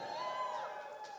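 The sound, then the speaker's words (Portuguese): Members of the church ministry Open the Door shout and cheer together in a steady, sustained roar, fairly loud, with no single speaker standing out. “Você vai ouvir o grito deles agora, se chama Open the Door, você sabia que a gente tem?”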